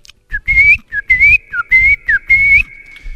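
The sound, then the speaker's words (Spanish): A person whistles an imitation of birdsong: a string of short, bright rising and falling phrases with brief pauses, mid-high in pitch and fairly loud, no talking. “Y ahí vemos al pajarraco cantando y haciendo desmanes para llamar la atención de la hembra.”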